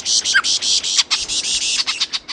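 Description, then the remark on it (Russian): A male lyrebird mimics the alarm calls of a whole bird flock: loud, high-pitched chattering in rapid overlapping bursts with brief gaps, sounding like many agitated birds at once. “И вот тогда-то самец и стал изображать этот многоголосый птичий гомон.”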